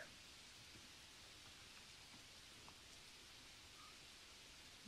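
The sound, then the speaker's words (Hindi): Steady, quiet rain patters against a window, a soft continuous hiss with occasional faint drip ticks, heard alone with no voices. “बाहर खिड़की पर बारिश की बूंदें जो आवाज़ बना रही हैं उनको सुनते सुनते आप पेट भर खा रहे हैं”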